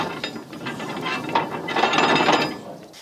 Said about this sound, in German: Bis dahin werde ich jetzt den Anker stramm setzen.